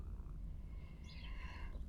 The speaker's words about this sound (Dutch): Ik zit momenteel heerlijk buiten in de zon. Vogeltjes die fluiten.